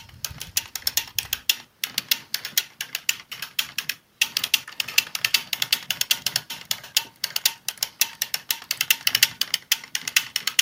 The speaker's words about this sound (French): Le doux son de ma machine à tricoter les chaussettes.